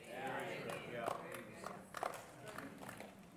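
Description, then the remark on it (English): About seven scattered, uneven hand claps from an audience, sharp and fairly quiet, pop out one by one over a low murmur of crowd noise and indistinct voices. “Thanks for those seven claps.”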